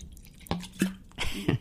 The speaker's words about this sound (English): Uh, it's in an elegant uh, punch bowl. We shall pretend. Right. Uh, if I uh, can tell you the plastic bottle he's pouring it from.